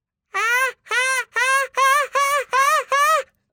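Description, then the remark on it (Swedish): A person imitates a seagull, voicing seven quick, even-paced cries in a row, each a loud, strained, nasal call that swoops up and down in pitch. “Nej men du ska göra mås, inte när du runkar.”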